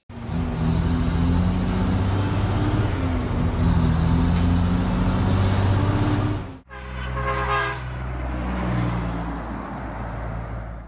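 A heavy truck rumbles past with a steady, droning engine, then after an abrupt cut a sharp hiss of air brakes bursts out over the low idling motor. No one speaks.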